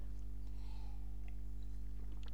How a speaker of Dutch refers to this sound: Even een slokje water er tussendoor.